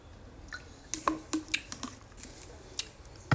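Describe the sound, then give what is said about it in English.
Someone drinks water during a break in speaking: a quiet run of soft, wet gulping and lip-smacking clicks scattered irregularly over a few seconds, with no talking. “Wait a second, I need some water. We're gonna take an intermission break right here.”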